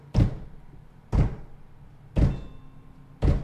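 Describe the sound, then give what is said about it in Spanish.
Four dry, wooden thuds imitating a knife striking a wooden cutting board in a kitchen, evenly spaced about a second apart, fairly loud with a short decay, no talking. “Me dice, e-, es el golpe así que todos lo tenemos en la cabeza, cuando estás cortando algo en la tabla de madera y con el cuchillo le haces el pac, pac, para cortar de un solo tajo algo.”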